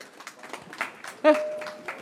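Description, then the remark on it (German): A small audience, asked to clap just once, claps once together, a single sharp burst of hands that rings out briefly before fading, set against a faint background murmur. “So, und jetzt dürfen Sie noch applaudieren, die wenigen. Die genau, einmal klatschen bitte.”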